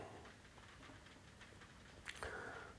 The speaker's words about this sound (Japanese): 雨がね今もう結構音が聞こえてますんでね昨日梅雨入りということではいつに入りましたね